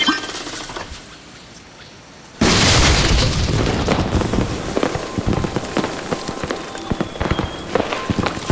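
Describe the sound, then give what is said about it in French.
After a couple of quiet seconds, a seed cannon fires with a sudden loud boom, followed by several seconds of dense crackling and pattering like debris raining down. “J'ai assez de connaissances pour charger le canon à graines maintenant.”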